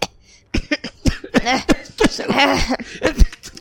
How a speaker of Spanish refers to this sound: Y ahí va, ahí va la tosecita.